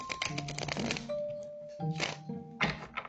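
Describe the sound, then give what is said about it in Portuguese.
A card deck is shuffled to draw clarification cards in a card reading, with a long crisp riffle followed by two shorter bursts of flicking cards, over a faint steady tonal hum. “Agora eu vou pedir esclarecimentos para baralho guilda de Royal do Ciro Marquette”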